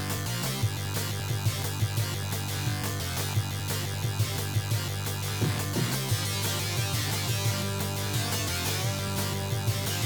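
Loud, busy electronic music from the Sega Genesis football video game Mutant League Football, with a pounding bass line, steady driving percussion and layered synth tones, playing continuously with a brief break in the bass around the middle.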